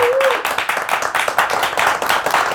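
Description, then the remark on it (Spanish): A crowd breaks into steady applause for Paco González before he speaks, many hands clapping in a dense, continuous patter that stays loud throughout, with a brief high whistle-like tone at the very start. “Sí, sí, antes de que comiences a hablar, por favor, fuerte aplauso a Paco González, por favor.”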